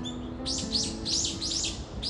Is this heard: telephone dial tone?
no